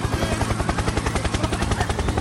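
Loud, steady chopping of helicopter rotor blades, a fast rhythmic thumping pulse over a broad engine roar, continuous with no voices.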